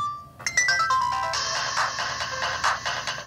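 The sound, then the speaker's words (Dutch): A basic mobile phone made in India plays one of its built-in ringtones, a bright, rapid, piercing electronic melody of short beeping notes, fairly loud, with no talking over it. “Let's try the different ringtones.”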